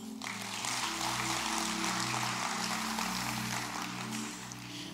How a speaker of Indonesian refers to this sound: Yang mau berikan tepuk tangan yuk.